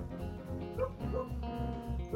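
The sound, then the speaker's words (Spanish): Dogs bark, a handful of short, muffled barks spaced irregularly over a low background rumble, with no one talking. “ya estoy hablando de Legochi y empezaron a ladrar los perros”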